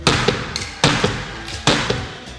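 A Torcísio gavel strikes down hard three times at a steady pace, each loud crack ringing out briefly, with lighter taps in between. No one speaks.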